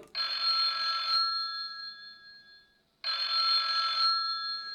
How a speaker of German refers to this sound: Nein, das Telefon klingelt. Das Telefon klingelt und wer ist dran?